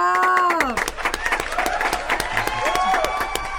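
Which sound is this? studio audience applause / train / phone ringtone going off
studio audience applause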